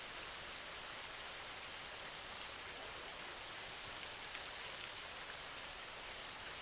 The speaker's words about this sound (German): Der wohltuende Regen reinigt auch deine Gedanken. Alles, was dich belastet, wird von dem sanften Regen weggewaschen.